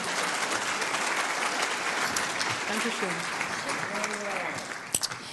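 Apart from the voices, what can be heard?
audience applause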